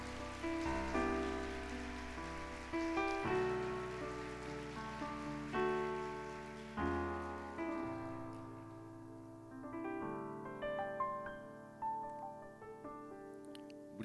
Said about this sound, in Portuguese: gostaria que vocês dessem uma salva de palmas. Pode subir, irmão, pode.